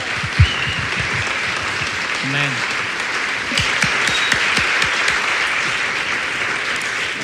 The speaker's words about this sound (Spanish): Un aplauso al Señor fuerte. Gloria a Dios.